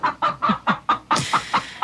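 A hen clucks in a quick, steady series of about nine short clucks, fairly loud and alone, with the last few a bit brighter and harsher.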